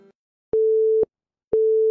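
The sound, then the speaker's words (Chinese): A phone busy tone after a hang-up: two steady, mid-pitched beeps, each about half a second long with equal gaps between them, sounding alone with no talking. “说完后，对面直接挂了电话。”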